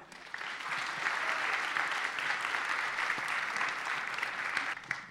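Steady audience applause for two women, a dense wash of many hands clapping at once, sustained at an even level for several seconds before tapering slightly at the end.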